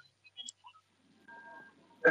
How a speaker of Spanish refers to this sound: el que hace, el que hace un, como una interferencia. ¿No? No. No, pues está apagado. No, creo que es el tuyo